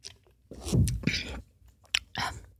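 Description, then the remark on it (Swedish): Someone takes a small sip of coffee: a few short, wet slurping and lip-smacking sounds with a gulp, clearly audible with no talking. “Men okay, så Nu ska jag ta en liten eh, klunk kaffe här.”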